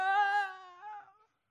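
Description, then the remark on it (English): A parent's voice mimics a child's whine, a sustained nasal, high-pitched tone lasting just over a second, wavering slightly before trailing off into silence. Fairly loud, with no other sounds. “I don't know how many times a day I hear the, the whine. Ah!”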